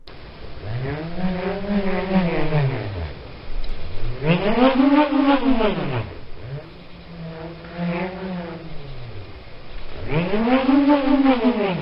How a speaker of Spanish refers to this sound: Y eh, quiero, si puedes poner por favor la audición 3D para que escuchemos este instrumento prehistórico que es la bramadera. Vamos a escuchar esto.